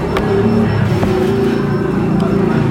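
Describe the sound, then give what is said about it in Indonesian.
A small underbone motorcycle with a loud racing exhaust rumbles steadily, its throaty engine drone continuous, with a few sharp pops breaking through. “Motor knalpot racing, motor bebek knalpot racing, suaranya anjir di sini banyak bom, banyak mamang racing.”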